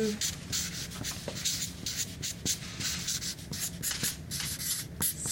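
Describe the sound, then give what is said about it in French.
Steady scratchy strokes of a marker or pen as a person writes a word directly on a wall to leave a message, with rhythmic rubbing and brief pauses between strokes, continuing throughout without any talking. “directement sur le mur. Là, il y a Marie qui écrit présentement déplacement”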